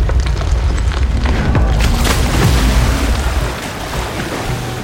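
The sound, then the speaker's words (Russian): A wooden frigate stuck in silt groans and cracks deafeningly as gusts of wind strike its side and it heels over onto its side, sharp splintering snaps over a deep rumbling roar and churning water, fading slightly toward the end. “И вместо того, чтобы сдвинуться с мертвой точки, застрявший в иле фрегат покачнулся и с оглушительным треском завалился на бок.”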